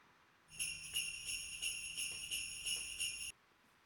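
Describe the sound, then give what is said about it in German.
A bunch of keys on a key ring shaken in a steady, regular rhythm to imitate sleigh bells, giving a bright metallic jingle for about three seconds, with no other sounds. “Ich glaube, da sitzt einer mit dem Schlüsselbund und macht Schlittenglocken.”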